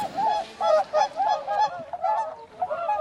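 A goose honks repeatedly, a loud run of nasal, brassy calls in quick irregular succession with no one speaking.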